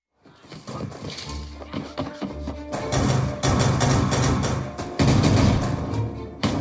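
Hurried running footsteps thud along, then a dense barrage of gunshots erupts and keeps cracking loudly all around, with repeated sharp bursts and no talking; part of a radio program from Guangzhou, China, produced and broadcast in cinema-style surround sound.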